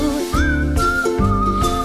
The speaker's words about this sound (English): Whistle up high, now whistle down low.